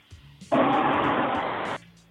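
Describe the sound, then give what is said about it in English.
A loud burst of broad hissing static over an open phone line lasts about a second, cutting in abruptly and stopping just as sharply, with faint line noise before and after. “definitely an open line. It sounds like it's on.”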